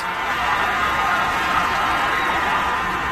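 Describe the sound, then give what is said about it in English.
A large stadium crowd roars and cheers continuously as a falling cat is caught in an American flag by men below, a dense wall of voices holding steady at high volume throughout, with scattered shouts and whoops rising out of the din. “they catch it on the American flag, then hold it up for the crowd and the crowd goes crazy”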